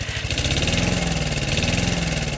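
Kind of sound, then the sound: machine, lawn mower engine running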